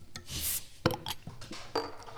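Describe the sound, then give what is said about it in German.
A chair creaks and groans in a few short, irregular bursts, with dry woody rubbing and a sharper knock partway through. No one speaks. “Mein Stuhl knarzt.”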